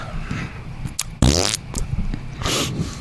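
A loud fart from a man bursts out in the middle, a rough buzzing blast lasting about a third of a second, with a few shorter sputters and faint rustling around it.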